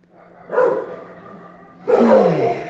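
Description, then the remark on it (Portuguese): Many dogs from a home kennel and from the street bark together in rough, overlapping bursts, a loud outburst, a brief lull with lingering noise, then another loud round. No one speaks. “É isso que dá ter um canil em casa, parabéns. 5 mil cachorro, mais os da rua.”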